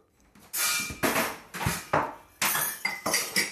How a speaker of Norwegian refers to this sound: samles tekopper og skåler sammen.